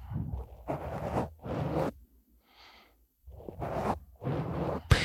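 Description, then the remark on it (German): Scratchy rubbing noises of a nose against a microphone pop filter, several rough swipes in bursts with brief pauses, one softer airy brush in the middle; no one speaks. “Jetzt mal meine Nase auf dem, wie heißt es nochmal genau? Popschutz.”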